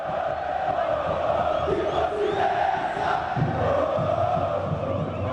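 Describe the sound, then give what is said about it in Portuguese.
A large crowd of Formula 1 fans cheers and roars continuously for Albon's first podium, a dense wash of many voices with shouts rising out of it, loud and steady for the whole stretch. “Que torcida é essa mesmo, né?”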